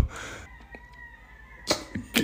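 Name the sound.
rooster crowing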